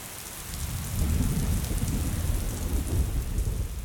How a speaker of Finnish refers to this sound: Satoi aivan armottomasti ja kaikki vaatteet olivat märkiä kalsareita myöten.